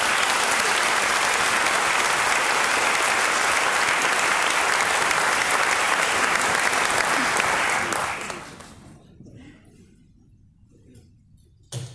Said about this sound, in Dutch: Een applaus voor Chokri Ben Chica.